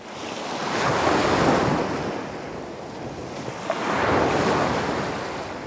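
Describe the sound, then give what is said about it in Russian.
An icy stormy wind roars over heavy sea waves, the noise swelling and receding in two broad surges, loud, with no voices. “Five Alarm, пока летел вниз, угодил в ледяную бурю, которая отбросила его в сторону”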